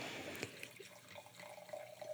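Wine, a 2004 Domaine Henri Gouge Nuits-Saint-Georges Premier Cru from the Les Vaucrains site, pours into a glass in a steady trickle, its gurgling pitch rising slightly as the glass fills. It is fairly quiet, with no voices.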